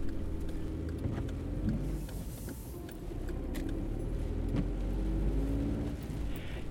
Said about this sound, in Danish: Jeg sidder i bilen på vej til København fra Fyn.